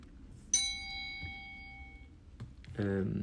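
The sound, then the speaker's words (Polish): A single bright bell strike rings out clearly, its metallic tone shimmering and slowly fading over about a second and a half, before a voice starts speaking at the end. “To dzwon.”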